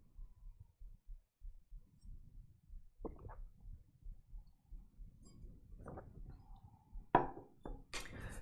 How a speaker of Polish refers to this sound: Łyczek wody, wasze zdrówko. Trzeba się oczywiście nawodnić obowiązkowo.